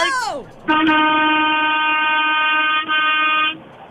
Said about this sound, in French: C'est à go. On veut le plus de klaxonnage quand on va dire go. OK, fait dans 3, 2, 1, let's go, mon go!